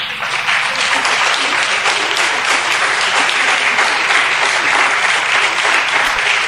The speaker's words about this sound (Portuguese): Você pode dar uma salva de palmas a Deus?